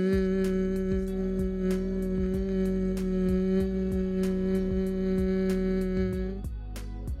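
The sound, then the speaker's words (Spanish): A single steady hummed "mm" held evenly through a full exhalation, clear, as a breath-controlled vocal exercise, with a soft low rhythmic backing underneath and no talking. “Manténlo durante toda tu exhalación lo más parejito el sonido posible.”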